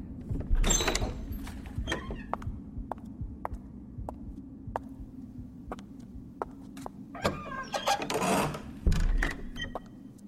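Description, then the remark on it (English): A person runs quickly up the steps of a large library building and throws open the door: a steady series of light knocks like quick footsteps and a low background rumble, then a loud clattering bang. No one speaks. “I ran quickly up the steps and threw open the door.”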